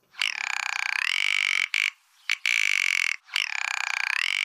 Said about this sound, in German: An dem Ton kommt man in den Bündner Bergen kaum vorbei, am Ruf vom Alpenschneehuhn.